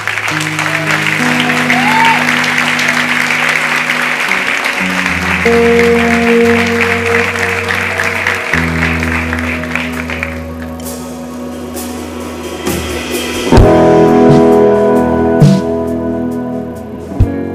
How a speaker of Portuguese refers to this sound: Glória a Deus. A igreja pode dar um aplauso a Jesus por isso.